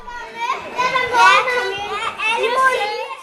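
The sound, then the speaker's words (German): Lively children's voices chatter and shout over one another throughout, a busy, echoing crowd of kids playing noisily in the children's section of a library. “Laut geht es zu, es darf gelacht und gescheppert werden.”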